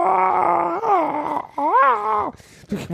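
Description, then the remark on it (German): A single voice mimics a crowd's goal cheer for a French goal sweeping from left to right across an entire airport: a long, drawn-out wavering shout with rising and falling pitch, broken into a few swelling bursts over about three seconds. “Das heißt, ein Tor ging von ganz links mit so”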